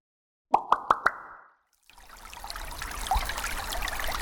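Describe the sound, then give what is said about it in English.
Four quick, resonant water drips plop in a steady rhythm, then after a brief silence a continuous trickling, running-water sound rises and carries on to the end. “If data had a sound, it could be this the sound of important and sensitive information leaking out of your business.”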